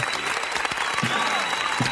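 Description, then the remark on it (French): A burst of steady applause, many hands clapping in a dense, even patter that stays at a constant loudness throughout, with faint voices murmuring underneath. “Je t'applaudis et je vais également applaudir monsieur Aurine, euh, alias Aurine, pas de problème, aucun problème.”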